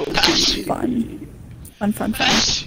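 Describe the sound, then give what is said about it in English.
A couple of sharp, breathy sneezes burst out, one near the start and one at the end, with people talking in between. “God bless you, bless you, bless you.”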